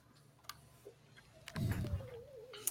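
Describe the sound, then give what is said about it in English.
A single drawn-out cat meow, fairly quiet and slightly falling in pitch, comes after a few soft clicks and taps. “that cat is superlative.”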